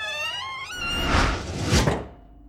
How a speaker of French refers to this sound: Il passe par la chatière